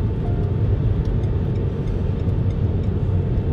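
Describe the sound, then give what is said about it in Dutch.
Steady, loud road roar of a car driving fast in the left lane of a three-lane highway, with the traffic flow above 100, a continuous low rumble with constant tire and engine noise and no voices. “Maar ik ben niet de enige die continu te hard rijdt. Want eh, de hele stroom die rijdt standaard boven de 100.”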